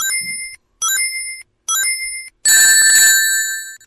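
A Sonic Mania sound effect from its sound test mode, of the player getting hit and losing all the rings: three bright, bell-like electronic chimes with high ringing overtones, then a denser, louder shimmering burst of jangling tones. No voices.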